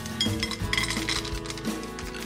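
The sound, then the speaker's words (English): A utensil clinks and scrapes against a pan while caramel melts for miso caramel cracker cookies, with a few sharp metallic taps spaced irregularly over a steady low hum. No one speaks. “I'm gonna start by melting some caramel in my pan.”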